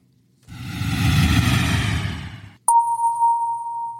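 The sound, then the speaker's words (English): A steady rushing roar of airplane cabin noise fills the first seconds, then cuts off as a single loud, clear seatbelt-sign chime rings out, signalling that the seatbelt can be taken off, and sustains to the end. “You can now take off that belt and move freely around the cabin.”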